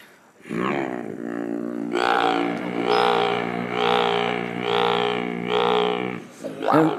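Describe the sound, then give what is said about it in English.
A deep, gritty sphincter bass note, made by collapsing all the tissue down, held for about six seconds. It is rough and growl-like, its vowel color pulsing roughly once per second before a brief breathy release at the end. “We like to call this sphincter bass.”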